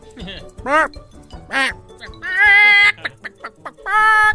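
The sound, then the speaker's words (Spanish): A person imitates a clucking hen, giving a few short rising squawks followed by longer, strained cackling bursts, loud with brief pauses between calls. “Como gallina.”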